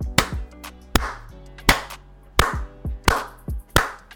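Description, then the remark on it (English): Sharp hand claps, about nine of them, landing at an uneven rhythm with short pauses between, each a crisp, loud smack with a brief low ring after it. No one speaks. “and clapping for people pretty much continuously.”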